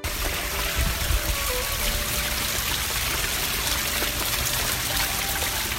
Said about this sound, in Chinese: 啪嗒，啪嗒，黄豆大的雨滴使劲儿砸向大地。雨点越来越密，声音越来越大，直至哗啦啦的雨声占领了赛弗和维特的耳朵。